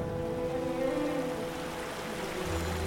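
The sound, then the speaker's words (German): Water flows steadily, a continuous rushing and gurgling that holds an even level throughout, with a faint low hum rising underneath near the end. “Aber woher kommt dieses Wasser?”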